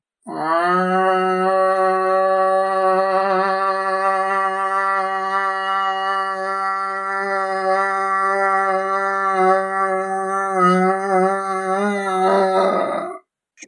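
A voice imitates a berrante cattle horn with one long, steady, droning blast that holds loud for about twelve seconds, wavering slightly near the end before cutting off abruptly.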